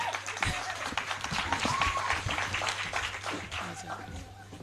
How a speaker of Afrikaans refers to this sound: Ons gee vir haar lekker hande klop.